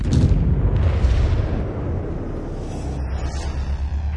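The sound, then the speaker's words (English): A loud, rumbling explosion sound effect in an audio drama, with heavy low-end boom that rolls on for several seconds, its deep roar fading slightly but sustaining throughout, with no voices present. “You should experience lots of explosions with no body parts.”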